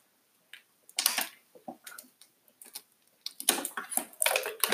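Someone taking a sip of water: a few irregular, crisp clicks and wet mouth sounds, then a denser cluster of swallowing noises, with no talking.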